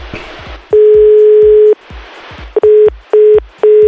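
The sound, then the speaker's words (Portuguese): A phone line sounds one long electronic beep, then three shorter evenly spaced beeps, with faint static hiss filling the gaps; a repeated call attempt goes unanswered and no one speaks. “Ah, manda mais uma vez. Tenta mais uma, pai. Tentando. Aí se ele não atende.”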